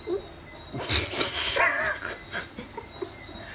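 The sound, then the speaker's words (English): A dog barks and yips several times in quick, uneven bursts, moderately loud, over a faint steady background hiss. “Cause I know a lot of people don't like hearing them things. Unfortunately, the dogs cancel my subscriptions.”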